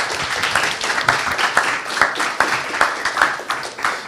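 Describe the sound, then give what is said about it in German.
An audience applauds steadily, a dense patter of many hands clapping at once with sharper individual claps popping out of the wash, sustained at a fairly loud, even level throughout. “Applaus”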